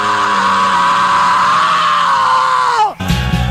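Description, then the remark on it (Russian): A loud, sustained rock-style scream held steadily for nearly three seconds, a voice imitating a rock singer screaming into a microphone on stage at the Woodstock festival in pouring rain, then dropping sharply in pitch and cutting off into a brief burst of noise. “вышел на сцену под проливным дождем, но кричал он в микрофон так, что дождь прекратился.”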